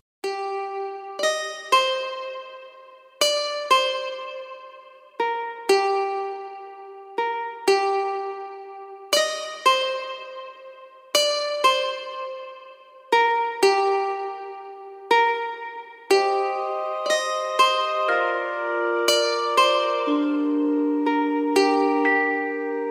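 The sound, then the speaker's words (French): A synthesized guitar from the Omnisphere software plugin plays a steady pattern of plucked notes that ring and fade, then shifts to fuller sustained chords toward the end. Clear, with no voices. “Bah après on a fait une petite guitare donc la guitare, pareil, c'est un son d'un plugin qui s'appelle Omnisphere”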